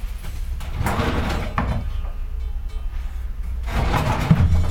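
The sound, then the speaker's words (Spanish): Drawers slide open and shut in a few rolling, scraping strokes, fairly loud, with brief pauses between them and no talking. “Joder, todos los cajones. Son cajones en el de Aquí hay uno que está lleno.”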